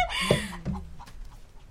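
A pet chicken named Doctor, let loose inside a house during a typhoon and flying about, clucks twice in quick succession, loud, with a brief harsh squawk at the start, followed by quiet indoor background noise.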